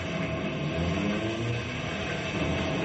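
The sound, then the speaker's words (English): A weakened railroad trestle creaks and groans under strain, a dense, steady rumble with low wooden and metallic moans running unbroken and fairly loud for the whole stretch, with no voices. “Did you hear that? Yeah, the trestle's weakened.”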